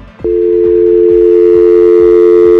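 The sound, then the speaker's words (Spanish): A steady, loud telephone dial tone begins abruptly after a brief click as the other caller hangs up, and holds one unbroken pitch, with faint low thumps pulsing underneath. “también ya, ya colgó también este güey.”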